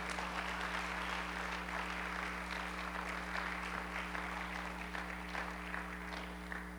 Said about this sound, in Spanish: ¿Alguien puede aplaudir todavía o ya se sienten muy ofendidos?